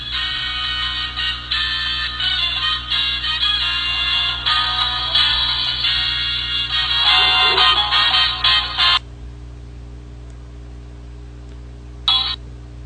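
A big loudspeaker at a shop door in the Gamarra market blares loud, bright, tinny electronic music for about nine seconds, then cuts off, leaving a low steady hum with one short burst of music near the end.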